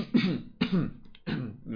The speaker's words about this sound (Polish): Wychodząc z y, partnerza, później z różnych sklepów mm, i y, spotykając się ostatecznie gdzieś na środku traktu, y, za sobą słyszycie y, głośne odchrząknięcie.